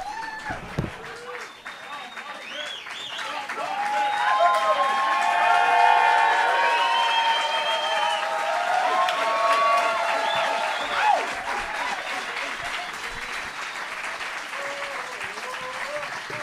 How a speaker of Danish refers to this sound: Og så må I meget gerne klappe, som om det er første gang, I ser os. Det vil være helt vildt fedt.